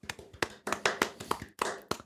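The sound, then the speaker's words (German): A short burst of hand clapping for the winner of an email giveaway, a quick, uneven run of sharp claps, as if from one or a few people, with no voices. “Hier an der Stelle Applaus.”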